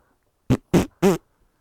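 Three short, loud fart noises into a microphone in quick succession, each a rough buzzing burst with the last one slightly longer and more tonal.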